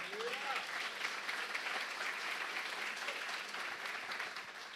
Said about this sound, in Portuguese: Agora presta atenção, e se é para o Senhor, pode aplaudir mesmo.